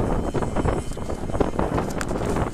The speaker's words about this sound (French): Waouh Il y a du vent aujourd'hui.